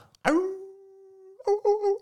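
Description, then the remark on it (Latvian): Someone imitates a wolf with a long, steady howl held for about a second, then breaks into a few shorter, wavering howling bursts. The voice is fairly loud, with no other talking. “11 vilkā kā gaudo.”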